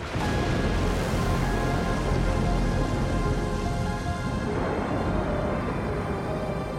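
An imagined raging storm inside the atmosphere of Saturn roars continuously, a dense, loud wash of heavy rain and rumbling noise with faint droning tones threaded through it, steady from start to finish with no voices.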